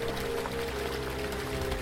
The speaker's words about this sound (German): Als ob ein Loch ins Raum-Zeit-Kontinuum gerissen wurde, aus dem nun Unmengen an Wasser dringen.